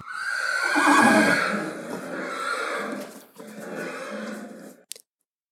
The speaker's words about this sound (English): Hmm, okay, replied Hayat the horse. She let out a loud neigh.